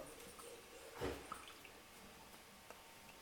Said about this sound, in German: Dann gießen wir ein bisschen Balsamico-Essig drüber